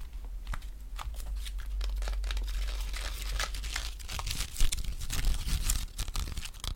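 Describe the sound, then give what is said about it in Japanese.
Toothpicks rattle and clatter inside their box in a steady flurry of dry, crisp little clicks and ticks, with a slightly louder burst partway through. No one speaks. “この爪楊枝の音がね、とってもいいと思うんだけど この箱もいい音すんだよ。”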